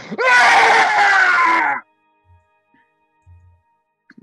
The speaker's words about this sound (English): I stand up and I just I just scream.